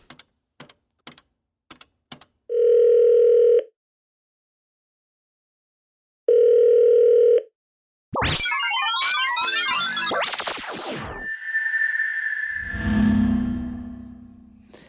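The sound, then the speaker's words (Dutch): A few sharp clicks, then two long, steady telephone ringing tones separated by a pause, followed by a burst of warbling, noisy connection sounds as the call goes through, placed by the speaker to the last member of his team. “Vandaag eh, ga ik het laatste lid van ons team bellen”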